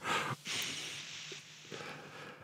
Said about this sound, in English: There was sniffing of the microphones occurring there.